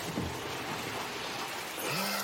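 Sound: rain falling outdoors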